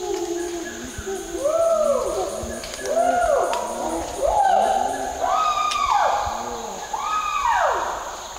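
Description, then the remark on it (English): Chimpanzees hoot in a rising series of arching, wavering calls, about one every second or so, echoing from some distance in the forest of Kibale National Park, with steady background hiss and no talking. “In some parts of the forest, you can clearly hear the chimpanzees in the distance.”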